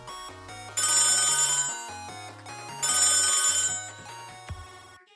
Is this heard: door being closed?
no